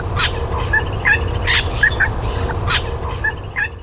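An Australian regent honeyeater mimics a little wattlebird's song: a run of harsh, raspy squawks mixed with short bright chirps, repeating every half second or so over a steady low rumble.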